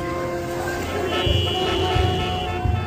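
Busy, chaotic bus traffic with a steady engine rumble and a long, sustained car horn sounding over it, plus a few shorter honks in the background throughout.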